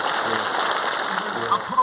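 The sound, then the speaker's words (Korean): A church audience applauds warmly as a bouquet is presented to thank visiting President Chun Doo-hwan, a dense, steady wash of clapping that holds at an even level throughout, with a faint voice murmuring underneath. “우리 예, 우리 모두 뜨겁게 박수하겠습니다.”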